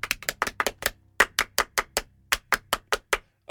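Rhythmic hand claps in a French-style applause pattern welcoming a guest, counted in with "un, deux, trois": sharp, crisp slaps landing in quick bursts and steady beats, fairly loud, with no voices over them.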